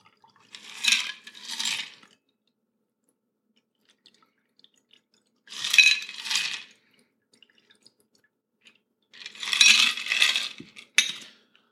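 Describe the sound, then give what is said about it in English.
Liquid pours into a champagne flute in three short, splashy bursts separated by quiet pauses, clear with no one talking. “So I have a nice flute in front of me, and I'll pour that into my, my champagne flute.”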